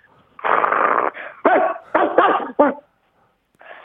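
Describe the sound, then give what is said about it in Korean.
A person with a strained voice, doing a dog impression, imitates an angry dog with a long rough growl followed by several short, snarling bark-like bursts, loud, then a brief trailing growl. “이거 강아지 화가 났을 때 한번 해보겠습니다.”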